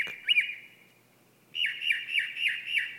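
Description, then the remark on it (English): A mockingbird calls with harsh, squawking notes: a quick burst, a short pause, then a steady series of about five repeated calls. It is clear, with no talking. “I want to tell this mockingbird, you're crazy. You're a crazy bird.”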